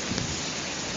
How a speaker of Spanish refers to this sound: Uf, qué lluvia.